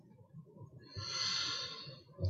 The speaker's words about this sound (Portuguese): Fazendo uma respiração profunda.